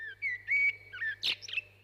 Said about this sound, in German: auch bei den Amseln singen nur die Männchen. Die sind ganz schwarz und haben einen gelben Schnabel. Im Frühjahr singen sie vor allem, um die Weibchen zu beeindrucken, im Herbst, um ihr Revier vor Rivalen zu verteidigen, also anderen Amselmännchen.